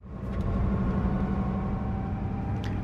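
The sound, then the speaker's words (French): A route 601 city bus engine in Clichy idles with a steady low rumble and a faint whine above it, holding constant throughout with no voices. “C'est le plus connu des bus qui passe à Clichy.”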